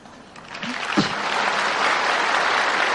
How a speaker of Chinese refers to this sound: 好，那么大家鼓掌就是赞成啦。